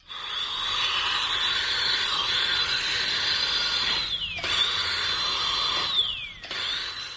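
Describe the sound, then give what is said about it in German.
A dentist's drill whines steadily at a high pitch, briefly cutting out twice with falling pitch glides as it spins down and back up, fairly loud with no talking. “Allein bei dem Geräusch läuft vielen ein Schauer über den Rücken. Der Zahnarztbohrer.”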